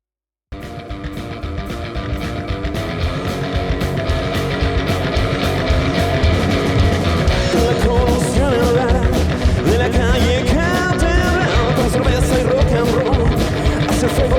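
A full band song plays loudly and steadily after a brief silence, with driving drums, dense layered instruments and what sounds like a lead vocal line riding on top.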